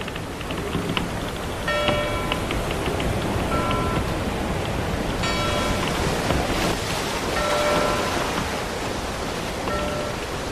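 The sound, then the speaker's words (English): A bright bell, signalling that the mail has come in, chimes about five times at uneven intervals, each ring a clear ringing tone standing out over a steady, loud wash of rain-like hiss, with no talking. “And that bell means that the mail has come in”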